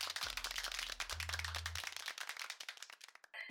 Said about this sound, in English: All right, applause. Yay.